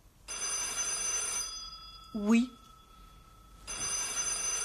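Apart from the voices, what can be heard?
telephone bell ringing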